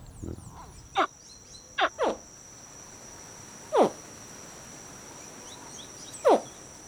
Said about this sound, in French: On envoyait des, des cris de, bébés bébé caïman noir et elle ne fait pas de différence et elle réagit comme s'il s'agissait de cris de bébé Orénoque.